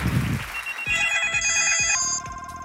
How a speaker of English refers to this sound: I hate it whenever I go to church and I hear cell phones ringing.